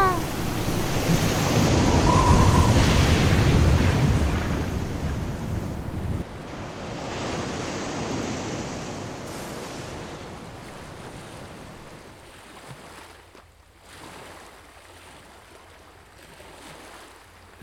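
stormy sea waves

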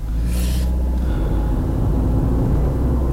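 car driving

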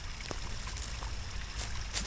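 trickling stream water

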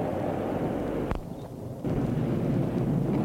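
thunder rumbling

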